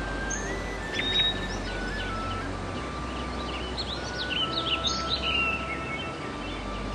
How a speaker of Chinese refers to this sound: 走着走着，就可以听见瀑布冲刷的声音。